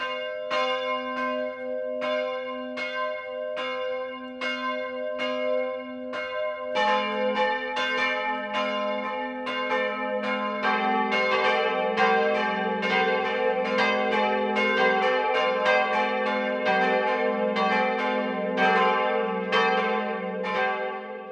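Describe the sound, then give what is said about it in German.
Church bells ring out for the 12 o'clock midday chime in Mintraching, Upper Bavaria, in the Freising district, a single steady bell striking in even rhythm before more bells join in a dense, overlapping peal that continues loudly to the end. “Das Mittagsläuten kommt heute aus Mintraching in Oberbayern.”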